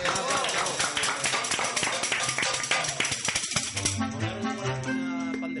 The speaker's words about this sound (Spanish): un aplauso, venga, va.